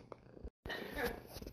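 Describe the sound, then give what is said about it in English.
A female domestic cat purrs while sitting on a person's lap, purring to a person's voice: a steady rumbling drone that cuts out for a brief moment before resuming at fuller volume. “you could probably hear our cat Peanut, who is sitting on my lap and purring in the background”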